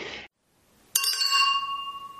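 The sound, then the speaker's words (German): Glasses clink together in a toast: one bright, sharp strike followed by a high, bell-like ring that lingers and slowly fades. A brief rustle and a moment of silence come first. “Und ansonsten würde ich sagen, lass uns anstoßen auf die 100 Folgen und gleichzeitig auf die nächsten 100 Folgen.”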